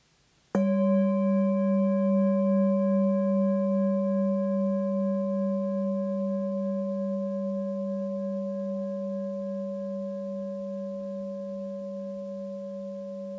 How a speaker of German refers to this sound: Und mit diesem Geschmack der Befreiung höre ich jetzt wieder den Klang der Klangschale von neuem, frisch, wach, präsent.